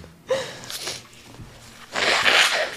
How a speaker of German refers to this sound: Ach so, aber ich war noch nicht fertig mit Niesen.